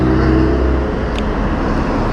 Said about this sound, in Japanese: 今日も、今日もバイクっすね、やっぱりこの時間はバイク多いですね。